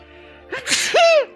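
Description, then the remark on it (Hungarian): A single loud sneeze bursts out, a sharp breathy blast followed by a rising then falling voiced tail, over a faint background hum. “Egészségedre válik.”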